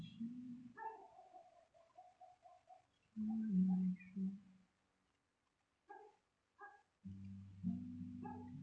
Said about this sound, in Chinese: 然后不知道为什么现在突然有狗在那边叫，破坏了我这首歌柔柔的感觉。